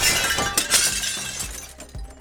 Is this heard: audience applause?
no